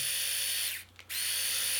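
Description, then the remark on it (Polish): A Remington rotary electric shaver whirs steadily with its shaving heads fitted, a bright high-pitched motor buzz that briefly winds down and cuts out for a moment near the middle before spinning back up. No one speaks. “Tak pracuje golarka z głowicami założonymi.”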